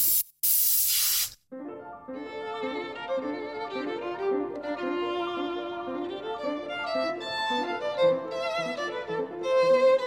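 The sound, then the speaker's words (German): A spray paint can lets out a loud hissing burst lasting about a second, with a brief break in the middle, then falls silent as music takes over for the rest. “Und was ich auch ganz schön finde, ist auf Holz zu sprühen, weil wenn dann zum Beispiel in dem Frauengesicht diese Holzmaserungen wieder auftauchen.”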